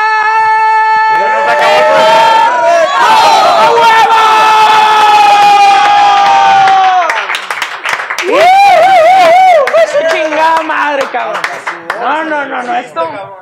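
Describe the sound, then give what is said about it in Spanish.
Loud, sustained shouting and cheering from a crowd at a live show at Toro Mambo, with long strained yells that waver and break, filling the whole stretch without pause. “En el Toro Mambo, rey, así en uno de los en vivos que tuve. Este, Seguro aprendiste a gritar así ahí”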